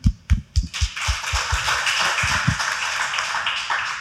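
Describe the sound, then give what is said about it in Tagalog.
A few sharp, separate claps ring out first, then quickly swell into a steady wash of applause from a crowd that continues at a moderate level without any talking. “Eta, kaya ba nating mamatay alang-alang kay Kristo? Palakpak nga dyan.”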